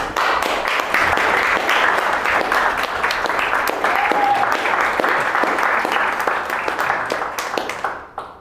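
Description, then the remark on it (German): Sustained applause from a large audience in a theater, welcoming a musical guest at a tea-break event, dense steady clapping that holds for several seconds before thinning out and fading at the end. “Ich sage einfach mal erstmal Applaus für ihn.”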